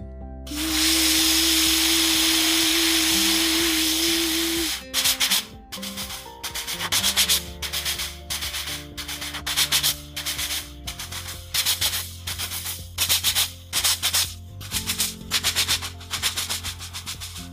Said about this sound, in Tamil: ரயில் வண்டி மிகவும் வேகமாக செல்ல ஆரம்பிச்சிருச்சு